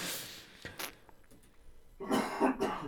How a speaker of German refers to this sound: Okay, ähm, ich habe die Hustentaste zu lang gedrückt, hast gerade mitgekriegt. Du hustest ganz schön viel.